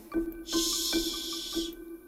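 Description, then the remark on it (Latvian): A child imitates a snake with one steady, breathy hiss lasting just over a second, fairly loud, over a faint, regularly pulsing tone in the background. “Bērniem iemācīts kaut kas, ka tās čūskas šņāts ļoti nu, precīzi.”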